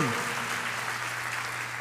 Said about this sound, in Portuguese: Você pode dar uma salva de palmas ao Senhor?